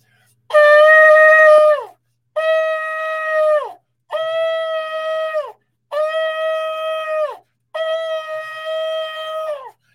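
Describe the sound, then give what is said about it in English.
A shofar, a ram's horn, is blown in five loud, sustained blasts, each lasting over a second and ending with a slight downward bend, separated by short pauses. No one speaks. “Come on, we're going to blow the shofar.”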